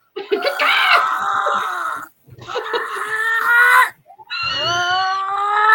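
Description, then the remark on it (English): A voice imitates harsh, screeching bird caws in three long, strained bursts, each rising and wavering with raspy harmonics, loud with short pauses between. “So I'm like, you hear those birds? You hear those birds cawing?”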